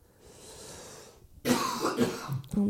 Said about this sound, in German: wir sind halt beide so rumhusten, ne? Sorry dafür. Aber es ist, es ist halt jetzt abends und am Abend, für dich hustet man immer noch mal viel mehr.